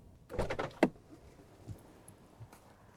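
A car door opens with a rattling rush of noise and shuts with a sharp, solid thud as a nurse gets out of the car with a bag of medical equipment, followed by a couple of faint soft bumps in a quiet background. No one speaks.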